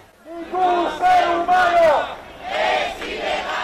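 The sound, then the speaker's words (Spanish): A crowd of protesters in a Spanish city chants loudly in unison at a Sunday protest against policies toward migrants at the Melilla border between Morocco and Spain, voices rising and falling in rhythmic shouted phrases with sustained, strained vowels, repeating in bursts over a continuous rumble of many voices. “Es una de las protestas que se han celebrado este domingo en varias ciudades españolas.”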